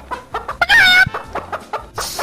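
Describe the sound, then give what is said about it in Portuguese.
A chicken clucks in short, choppy bursts around one loud, drawn-out squawk near the start, with no talking. “A galinha chorou.”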